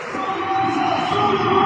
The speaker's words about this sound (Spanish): Se va a desengueir Abrines, lanzamiento de 2, dentro. Y el público aplaude.